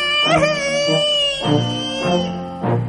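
A voice wails and sobs in imitation of a young bear cub crying because its soup bowl, the smallest of three, is empty, with several drawn-out, quavering cries rising and falling in close succession, loud.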